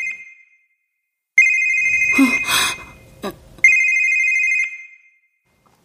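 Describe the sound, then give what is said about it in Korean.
An electronic phone ringtone of an incoming call at dawn chirps in repeated bursts, loud, with a brief gap where a person gives a short startled vocal sound and a soft click before the ringing resumes. “그때 전화가 걸려왔다.”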